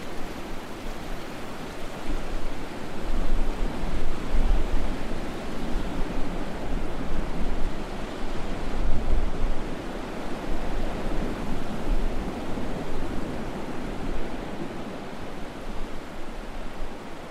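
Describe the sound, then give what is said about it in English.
Steady wash of ocean surf with gentle swells rising and falling, a continuous broad roar of waves and no voices, on an empty beach on a cloudy weekday. “He stood up, brushed the sand from his bathing suit, walked over to the edge of the water, and jumped in. It was cloudy, and because it was a weekday, there was no one else on the beach.”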